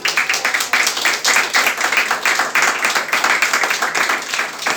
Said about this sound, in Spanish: Un aplauso por favor para las personas que están aquí.